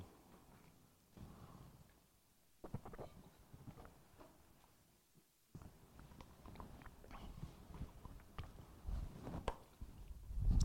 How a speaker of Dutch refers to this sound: En nou neem ik even een slokje